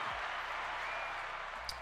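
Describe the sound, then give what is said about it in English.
An audience applauding for a planned late show, a steady, dense wash of clapping that holds at an even level for under two seconds, with no voices over it. “So let's clap that up in the works for that.”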